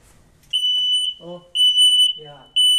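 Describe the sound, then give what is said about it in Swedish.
A piercing smoke alarm, tested by pressing its button, beeps in three long, loud bursts, with people talking in the short gaps between the beeps. “Och om man bara trycker på den så kommer den att börja låta om den funkar.”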